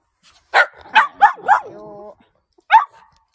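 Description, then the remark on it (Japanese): A dog barks four times in quick succession, then gives a short whiny tonal whimper, pauses, and lets out one more sharp bark, demanding that a ball be thrown. Fairly loud, with no talking. “今ね、これボールを投げてくれって言ってるんですよ。”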